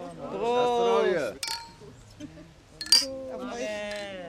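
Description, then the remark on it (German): Champagne glasses chime together in a toast at a premiere celebration, a few bright ringing clinks with a lingering tone, amid voices and the murmur of a lively crowd. “Hola, hola, hola, jetzt muss ich unbedingt ein Gläschen Champagner. Prost!”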